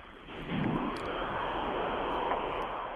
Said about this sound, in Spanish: que está ahí en la calle, me imagino, porque sí se oía el tránsito que pasaban los coches.